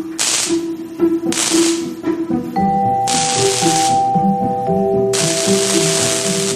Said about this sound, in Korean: 캅이 다루던 이산화탄소 용접기에 가스밸브를 열었다. 나는 용접봉을 높이 치켜들고 크게 소리쳤다.